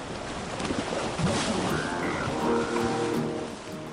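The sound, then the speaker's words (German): Surf crashes and churns against a narrow strip of shoreline in a dense, continuous, loud roar during a storm with whipping rain, with faint tonal sounds drifting over the wash and no voices. “Die Brandung tost inzwischen an den schmalen Uferstreifen, wo ich den Großteil meiner Ausrüstung deponiert hatte.”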